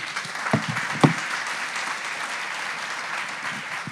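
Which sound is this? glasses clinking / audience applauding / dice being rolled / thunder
audience applauding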